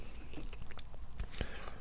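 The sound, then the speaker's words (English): Wet chewing of a pink-iced donut with crunchy bites and sticky mouth sounds, a couple of sharper crackles near the end as it is gulped down. No talking. “is going for the the gulp.”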